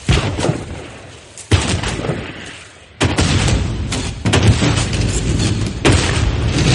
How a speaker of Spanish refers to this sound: La fragata Surprise dispara la batería que tiene a babor, mientras remolca un bote en el que un marinero está pescando.